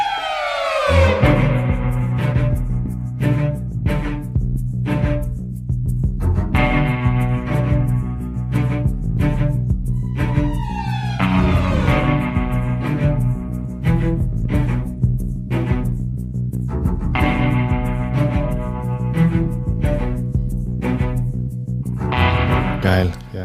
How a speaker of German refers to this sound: Dieser Soundtrack ist ewig groß, deswegen können wir da einfach nochmal drüber reden. Und bevor wir das machen, hören wir einmal rein in die Musik von Red Dead Redemption 2.